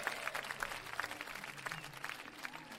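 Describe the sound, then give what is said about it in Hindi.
Steady applause from an audience at a poetry recital welcoming the third poet, a dense patter of many hands clapping at an even level throughout, with no voices over it. “तालियों के साथ इनका स्वागत करें”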